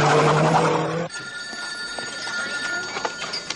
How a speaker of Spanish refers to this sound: Suena el teléfono en la cocina del restaurante.